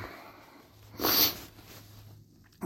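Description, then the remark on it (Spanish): A single short, harsh cough bursts out, then fades into a quiet, faintly humming background. No one speaks. “Nada como morirse de tos en tu primer podcast nocturno.”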